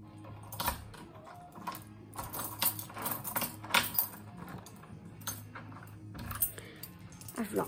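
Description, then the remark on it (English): Keys jangle and clink in irregular bursts while a door that must be pulled to open is worked open at the end of an evening walk, with metallic rattles and soft knocks over a low steady hum. “door needs to be pulled while you try to open it, so it actually wants to open, and that's a little tricky if you've got your hands full.”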